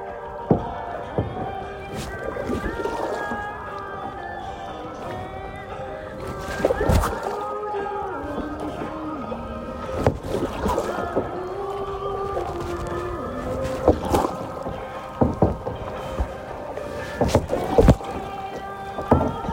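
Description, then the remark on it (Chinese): A small boat heads against choppy sea waves, water sloshing and slapping against the hull with irregular thumps and splashes, while voices murmur faintly underneath. “咱们现在要逆着海浪走喽。”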